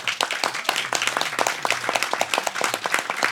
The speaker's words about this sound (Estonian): nii et äh, ma võib-olla kõigepealt alustuseks palungi Hugo Treffneri gümnaasiumi noortele veel ühe aplausi nähtud vaeva ja tehtud töö eest